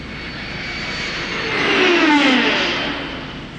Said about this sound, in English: Enemy plane, sir? Impossible. No plane can fly that fast. That looked to me like it was from another planet.